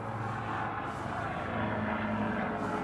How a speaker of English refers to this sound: That is an army helicopter just passing by and a very weird square shaped one. I'm just gonna put that out there right now. That is a weird looking helicopter.